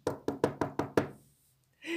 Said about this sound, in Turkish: Ve kapısını çalmış.